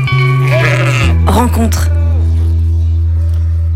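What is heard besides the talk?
sheep bleating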